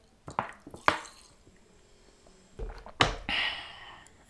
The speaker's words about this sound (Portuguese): Vou beber água.